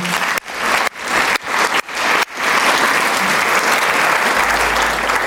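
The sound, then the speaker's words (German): Loud, sustained applause from an audience, a dense wash of many hands clapping, with a few brief dips early on before it settles into steady, continuous clapping. “Genau, einen Applaus”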